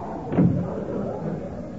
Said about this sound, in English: Close that door. You're cooling off my coffee.